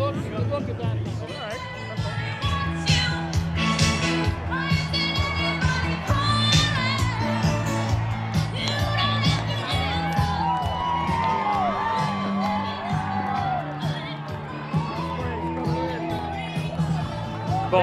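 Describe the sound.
A large crowd at a Trump rally, many in Trump shirts and caps and holding signs and flags, cheers and shouts over loud music, a dense, continuous wall of voices and whoops that stays steady for the whole stretch.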